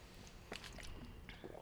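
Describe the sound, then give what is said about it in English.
Quiet mouth sounds of someone sipping a Sprite soda: a couple of short, soft slurping bursts separated by a brief pause, with no talking. “Um, can I have a sip of that Sprite?”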